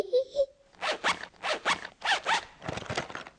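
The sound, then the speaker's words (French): A pencil case zipper that has been glued shut is tugged repeatedly in short, rasping bursts, four or five quick pulls in a row after a brief squeak, fairly loud, with no talking. “Au secours Je n'arrive pas à ouvrir la fermeture éclair”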